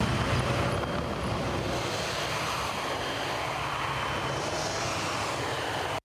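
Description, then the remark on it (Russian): A T-80 tank's gas-turbine engine roars loudly and steadily with a jet-like whoosh as the tank easily overtakes a car, and cuts off abruptly at the end. No one speaks. “Вот, посмотрите, как танк с легкостью обгоняет автомобиль.”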